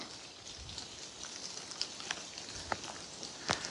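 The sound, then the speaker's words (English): Rainwater blown off tree leaves by the wind drips onto surfaces outdoors during an alpaca feeding round, irregular single hits and a few louder splats over a soft steady wet background, with no voices. “Oh, more rain it's not actually rain, it's just coming off the trees.”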